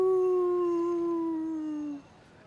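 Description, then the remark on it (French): A person imitates a wolf, evoking wolves howling far off under a starry sky in the Midwest, with one long, steady howl that sinks slightly in pitch over about two seconds, then stops abruptly, loud. “que j'étais dans une chaise à bascule, dans une maison, au milieu du Midwest, avec le ciel étoilé, la grande ours, le chant des loups au loin.”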